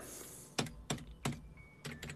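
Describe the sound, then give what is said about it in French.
Loud, clacky keystrokes on an old computer keyboard, about five sharp clicks in an uneven typing rhythm, with no voices. “mon clavier est vieux.”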